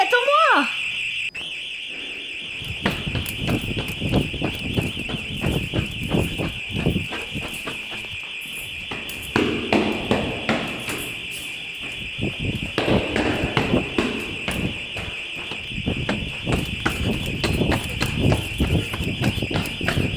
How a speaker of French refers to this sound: Eh, mais qu'est-ce que c'est C'est un anti-intrusion.